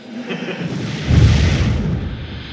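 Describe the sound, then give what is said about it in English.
A laser wall blasts apart a wooden chair, burning it away: a rising hiss swells into a loud, deep, rumbling boom midway, then a crackling roar slowly fades. No one speaks. “okay, that laser wall is pretty good. All that's left of that chair is the smell of burnt wood.”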